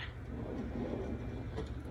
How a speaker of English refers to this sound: Ah, this door is impossible to get open.